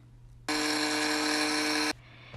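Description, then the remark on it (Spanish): A mixer whirs loudly for about a second and a half, blending coconut milk, soy milk, peanut butter and agave syrup. A steady high-pitched motor buzz starts and stops abruptly over a faint background hum. No one speaks. “Comenzamos añadiendo la leche de coco, la leche de soya, la mantequilla de cacahuate, el sirope de agave y batimos muy bien hasta que todos los ingredientes se integren.”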